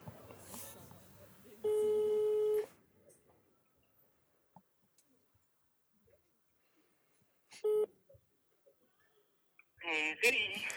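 A phone line's ringback tone: a steady electronic tone sounds for about a second, then returns briefly several seconds later amid faint clicks and handling noise, with a short burst of connection noise at the end.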